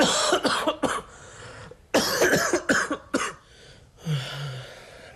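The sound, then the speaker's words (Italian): A run of harsh coughs in quick bursts, several in a row with brief gaps, followed by a short throaty rasp at the end. No speech. “Non le ho ah. detto di tossire.”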